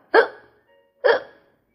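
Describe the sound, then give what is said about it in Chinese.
Two loud, abrupt hiccups about a second apart, each a sharp gulping burst that quickly fades, with silence between them and no talking. They sound like a person voicing the hiccups of a kitten that keeps hiccupping. “小猫打扮完了，还是不停的打嗝。”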